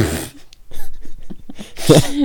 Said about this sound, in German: Übrigens, ich glaube, ich habe wirklich chronisches Husten. Wir haben uns da letztes Mal drüber lustig gemacht, so ein bisschen. Aber ich glaube, das ist wirklich Hustenkrebs.